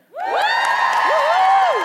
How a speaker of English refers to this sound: But um, if you would come to that workshop, or you would like to see another episode and make a part two of this, would you just give us a cheer?